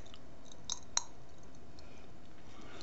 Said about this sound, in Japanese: パチパチパチパチパチパチ口の中で跳ねてますなんだもうちょっとリアクション大きいかと思ったのにパチパチパチパチパチって俺ならさあのパチパチ弾けるキャンディーというやつ音が今、聞こえたね